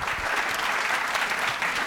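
Sustained applause from an audience at the end of an interview conversation, a dense, steady wash of many hands clapping at an even loudness for the whole stretch, with no voices standing out.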